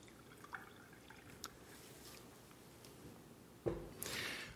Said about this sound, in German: Ich habe hier eine Karaffe mit Wasser, nicht zu knapp, ordentlich gefüllt und ein leeres Glas. Und jetzt fülle ich Wasser aus der Karaffe in das leere Glas.